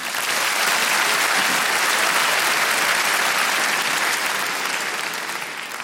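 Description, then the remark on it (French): Sustained applause from audience members aged 30 or older, who clap when the performer asks for them, a dense crackle of many hands clapping at once, steady and loud for several seconds before easing slightly toward the end. No voices stand out. “Et c'est parce que là, tous ceux qui viennent d'applaudir, ils savent un truc que les autres, vous ne savez pas.”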